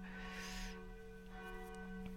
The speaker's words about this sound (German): Ist doch schön, wenn man mitkriegt, die, die Kirchenglocken läuten. Es ist jetzt eine Uhrzeit. Ist doch schön. Man bekommt das Leben mit.